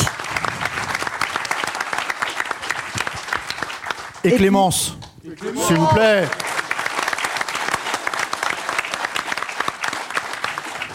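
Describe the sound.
An audience at the Club de l'Étoile applauds steadily for the show's technical crew member, a dense, continuous patter of many hands clapping, while a voice briefly speaks over it partway through before the clapping carries on.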